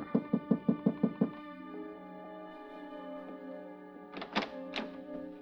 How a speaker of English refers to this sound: I gave her five minutes, then I knocked on her door.